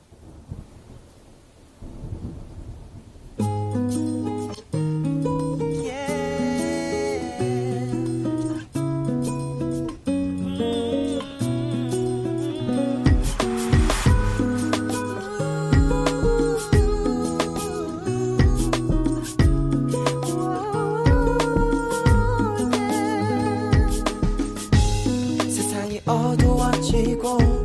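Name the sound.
K-pop song playing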